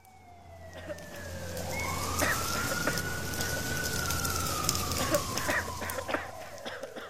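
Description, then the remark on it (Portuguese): A fire engine siren, as firefighters are called out to a fire, wails in one long rising and falling sweep, fairly loud and steady for several seconds, with scattered sharp background clatter and no talking. “Os bombeiros precisaram ser acionados.”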